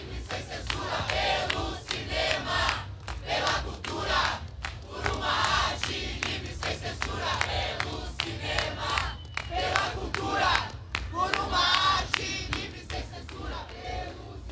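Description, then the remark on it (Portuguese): A large crowd of protesting artists from Argentina, Venezuela, Colombia, Bolivia, Chile and Brazil shouts and chants outdoors in front of the Palace of Festivals, voices surging in rhythmic waves that rise and fall for the whole stretch, loud, with a low steady rumble beneath. “Nesse momento, os artistas estão em frente ao Palácio dos Festivais.”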